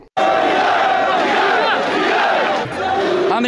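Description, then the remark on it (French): A large protest crowd shouts in unison outdoors on Avenue Bourguiba in Tunis, Tunisia, on the 12th anniversary of the Revolution, a loud, sustained roar of many voices chanting together with a brief dip before swelling again, filling the whole moment without pause. “Écoutez le cri du cœur sur l'avenue Bourguiba à Tunis à l'occasion du 12e anniversaire de la Révolution.”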